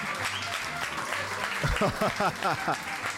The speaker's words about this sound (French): Euh, ce sont d'authentiques mariachi, hein, ça se voit d'ici. On peut peut-être les applaudir. Ouais, applaudissez-les là. C'est incroyable.